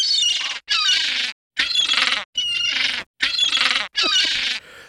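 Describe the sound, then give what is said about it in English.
Harsh, squealing cries of the griffin's army of seagulls attacking Beast and Spider Man come in about six loud bursts with short pauses between, several birds seemingly calling over one another. “Suddenly, Beast and Spider Man are attacked by the griffin and his army of.”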